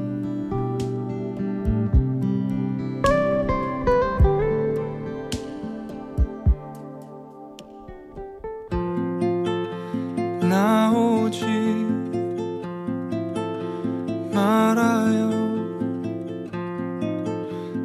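A Korean pop ballad plays on its own, with sustained harmonic chords and a melodic line. It swells into a fuller, steadier arrangement about halfway through, with bright melodic peaks rising twice.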